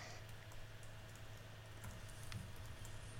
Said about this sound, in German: Das Tippen, das ihr im Hintergrund hört, liebe Hörer, das sind die beiden anderen, die sich sofort Notizen machen.